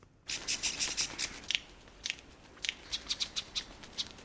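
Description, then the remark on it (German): A superb lyrebird's courtship song mimicking the alarm calls of various bird species: harsh, sharp, high chattering notes in a quick burst, then repeating in spaced, scratchy clusters, with no voices. “Normalerweise werden Vogelweibchen mit lieblichen Tönen umworben. Aber beim Prachtleierschwanz, da klingt es so.”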